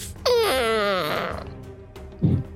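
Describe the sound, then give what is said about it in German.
A voice imitates a dying wolf's last whimper as it falls to the ground: one drawn-out, high whine that slides steadily downward and fades, followed by a brief low grunt-like sound near the end. “Ja, und er geht direkt zu Boden, der Wolf. Von ihm ist nichts mehr zu hören. noch ein letztes Winseln.”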